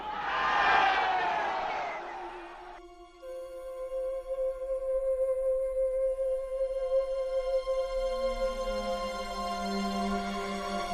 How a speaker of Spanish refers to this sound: La muchedumbre gritaba que liberasen a Barrabás.